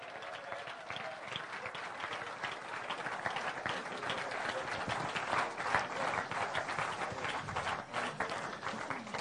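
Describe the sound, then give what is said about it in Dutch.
Sustained audience applause of encouragement as seven people come forward to stand at the front, a dense, steady wash of many hands clapping for about nine seconds at a fairly even loudness, with a few brief cheers mixed in. “Ja, blijf maar even klappen tot ze staan.”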